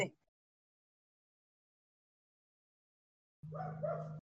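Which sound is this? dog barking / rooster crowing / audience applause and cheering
dog barking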